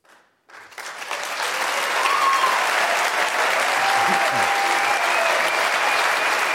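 A crowd breaks into applause after a brief pause, the clapping swelling quickly into a loud, dense, steady wash of many hands that holds without letting up.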